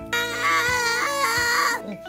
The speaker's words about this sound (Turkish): Eğer biri bana dokunursa şöyle yaparım. Hayır bunu bana yapamazsın. Durmazsa eğer böyle bağırırım.